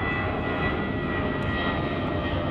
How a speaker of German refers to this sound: Übrigens freuen wir auch auf, dass, äh, uns auch, dass jetzt schon wieder das nächste Flugzeug kommt. Daran, ihr Lieben, müsst ihr euch tatsächlich in den nächsten Tagen gewöhnen.